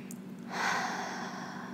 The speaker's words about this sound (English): And I'd like you to take three really deep breaths in. Breathing deep into the body so that your belly kind of expands on the inhale.